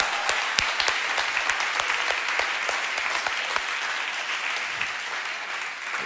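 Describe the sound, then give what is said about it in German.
Steady applause from a sizable audience at ICF church, given for everyone attending for the first time: a dense patter of many hands clapping continuously at an even level, with no voices standing out. “Lass uns mal allen einen Applaus geben, die heute zum ersten Mal da sind.”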